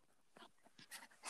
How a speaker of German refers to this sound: Mein Hund will den haben.